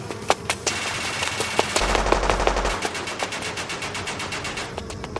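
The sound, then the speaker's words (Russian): A sustained burst of automatic gunfire fired at the narrator from about a kilometre overhead: dozens of sharp, loud cracks firing in rapid, uneven succession over a low rumble, with no voices. “Ударив в воздухе ногой, кое-как уворачиваюсь от слишком удачной очереди.”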